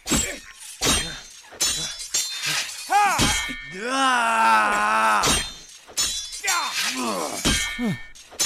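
Swords clash in a loud duel: sharp metallic clangs strike at an irregular pace, each leaving a bright ring, with a long grinding, singing scrape of blade against blade midway through.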